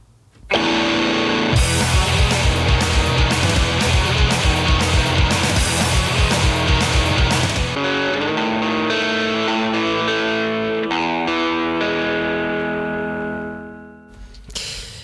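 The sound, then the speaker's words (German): Loud, heavily distorted electric guitar drives a fast, raw punk-style band track from the early 1980s with pounding drums for about fourteen seconds, then the noise drops away abruptly near the end. “wir machen Musik und weil es passt, äh, das Original, … von … aus den 80ern”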